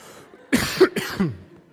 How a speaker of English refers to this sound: I'm going to cough because I've talked a lot.